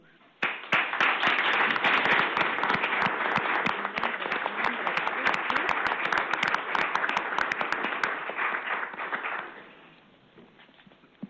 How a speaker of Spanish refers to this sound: quiero que felicitemos y demos un gran aplauso a un matrimonio que ha venido invitado a ver el programa, que cumple hoy sus 30 años de boda, de aniversario.